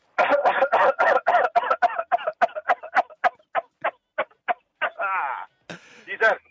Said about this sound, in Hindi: ये आपकी खांसी के अंदर ना दर्द था पता है आपको